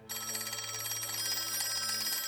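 An old-fashioned telephone bell rings continuously, a loud, rapid metallic trill that fills the whole moment with no voices present.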